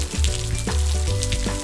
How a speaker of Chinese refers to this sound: 他飞呀飞，看到了两朵快要枯萎的花朵。他想要帮助它们，于是他利用自己身体里的水分，让自己下雨。